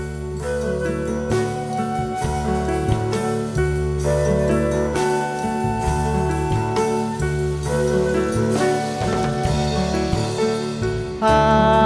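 An acoustic song plays steadily at full volume, with warm strummed and plucked instruments carrying a continuous melody and no talking over it.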